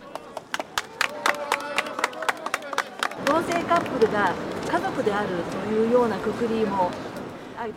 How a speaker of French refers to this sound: En novembre 2022, devant le tribunal de Tokyo, des militants et militantes LGBT déroulent une bannière sur laquelle on peut lire en japonais En avant pour obtenir l'égalité du mariage. Autour d'eux, leur soutien applaudissent.